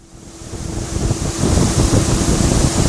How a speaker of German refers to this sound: Ist ja windig! Aus zahlreichen Schlitzen einer langgezogenen Metallkonstruktion strömt Luft. Auf diesem Luftbett wird glühende Zementmasse, wenn sie aus dem Ofen kommt, von 1400 auf 100 Grad abgekühlt.